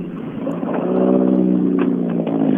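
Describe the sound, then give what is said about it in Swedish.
A car engine drones past, the last car to be seen in its class, its steady low hum swelling louder after the first second and holding strong, with a faint pitch shift as it goes by. No voices. “Eh, alltså en, en sista ska vi se en bil i just den klassen”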